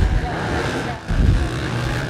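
Motocross bike engines roar in a loud, steady, buzzing drone as the bikes race towards the commentators at Little Silver, with a Yamaha out in front and a 450 in second. The drone briefly dips, then surges back as the bikes race on.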